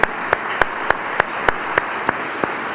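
audience clapping hands

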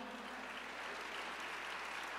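audience applauding

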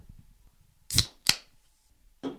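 soda can being opened

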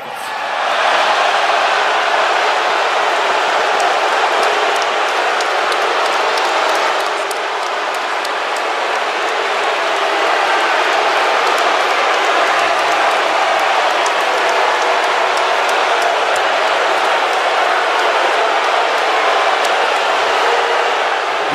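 arena crowd roaring

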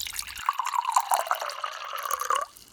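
water being poured

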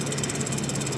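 bus engine idling

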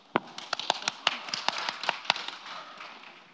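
audience applause

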